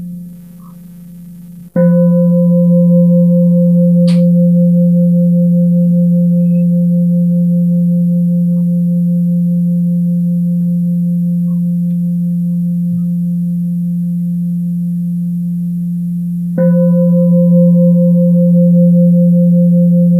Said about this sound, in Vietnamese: và khi mà mình sẵn sàng rồi thì mình thở sâu và trở về với dây neo hơi thở lắng nghe ba tiếng chuông